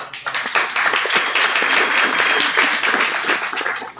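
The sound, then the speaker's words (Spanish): An audience at an evening event welcoming its invited guests applauds steadily, dense overlapping claps filling the whole stretch at an even, loud level with no talking over it. “Un aplauso.”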